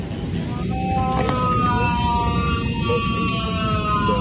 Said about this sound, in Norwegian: Dette skal være skriket til russiske Aleksej Navalnyj, også kalt Putins verste fiende.